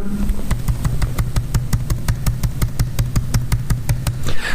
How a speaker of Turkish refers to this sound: O duyduğunuz benim şey klavyenin sesi yani e, mikrofonlu olan elimi aşağı doğru indirdim. Büyük yani e, shift tuşuna basıp tık tık tık tık x yaptım yani şimdi ben dönüp baktığımda orada mesela nerede kaldığımı anlayacağım konu olarak.